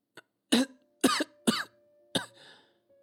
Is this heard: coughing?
yes